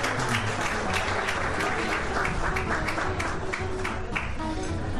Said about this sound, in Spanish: Un aplauso, por favor, para la agrupación.